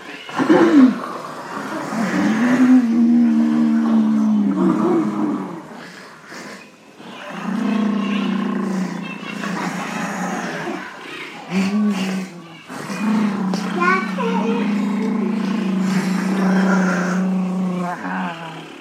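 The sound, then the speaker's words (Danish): Several voices rumble and drone together in long, sustained growls, imitating revving machine engines, rising and falling in loud bursts with brief pauses between them. “Der kommer endnu flere maskiner. Så skal vi have lidt mere maskiner. Nu må I virkelig hjælpe mig.”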